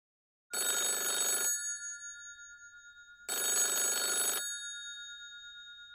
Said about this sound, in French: Il y a ces coups de téléphone incessants à répétition avec, euh, qui se matérialisent en fait par des onomatopées euh, qui occupent une bonne partie de la case et ce qui rend l'atmosphère de plus en plus pesante.